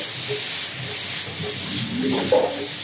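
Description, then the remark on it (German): A steady, fairly loud sizzling hiss from seeds roasting in a hot pan continues throughout, with a faint murmur of voices briefly rising underneath near the end. “Ähm, okay, dann brate ich mal die Kerne an.”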